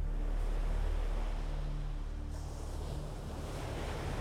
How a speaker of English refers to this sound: And the sound of the ocean waves.